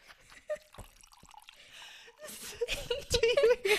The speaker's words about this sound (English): Do you hear those? Oh, oh, man, I just spilled this shit.